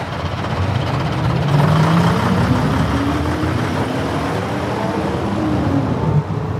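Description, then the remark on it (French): A loud old diesel bus, crowded with travellers, drones steadily as its engine starts, its pitch climbing as the vehicle pulls away, with rumbling road noise throughout and no voices. “C'est le son d'un vieux bus diesel, forcément, et pas du tout d'un train.”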